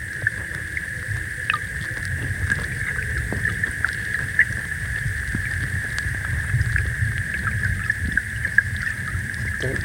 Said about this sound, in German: das Mikrofon, was jetzt im Wasser liegt, das hier an diesem langen Kabel. So ein mehrfach in Gummi eingeschweißtes Ding, das die Strömung aufnimmt